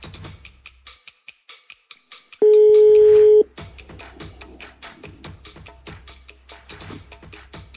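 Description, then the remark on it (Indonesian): A telephone call being placed to a quiz winner on the Kawan Mor show: a quick run of evenly spaced dialing beeps, then a single steady ringing tone lasting about a second, followed by faint line noise and muffled chatter. “Kita kita telepon sekarang yuk Mbak yuk.”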